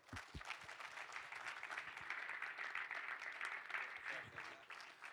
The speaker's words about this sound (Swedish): En applåd!